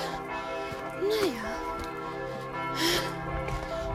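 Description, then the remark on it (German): Church bells ring steadily, their overlapping tones sustained throughout, while a person walking makes a couple of brief vocal sounds. “Oh, die Kirche wird immer noch lauter gefühlt.”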